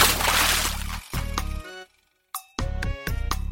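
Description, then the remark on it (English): Fairly loud water sloshing in several uneven bursts, broken by a short silent gap in the middle before the liquid splashes and swirls again. No voices. “I need some water.”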